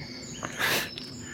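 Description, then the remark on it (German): Birds call from tree to tree in a brief outdoor moment in the morning, thin high chirps and a short rustling burst, fairly faint over a soft background hiss. “Und im Moment hören wir halt den Vögeln beim Vögeln zu.”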